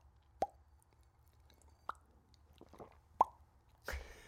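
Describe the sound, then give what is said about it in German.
A series of about six crisp lip pops, spaced irregularly, each with a hollow resonant tone that shifts slightly up or down in pitch from pop to pop as the person making them regulates the pitch. “Das können ganz wenige Menschen nur. Vor allem nicht so schön. Ich kann da sogar die Tonhöhe regulieren.”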